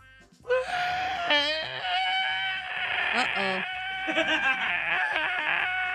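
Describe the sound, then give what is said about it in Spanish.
A voice imitates loud crying and wailing, a wavering, bleating sob that starts abruptly after a brief quiet moment and continues for several seconds with shaky pitch. “¿Estás llorando?”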